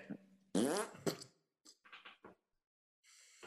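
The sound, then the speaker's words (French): A loud, buzzing fart blares out, followed by a few shorter sputtering bursts and a brief hissy trail at the end, with no talking. “Il va, il va se transformer en pet.”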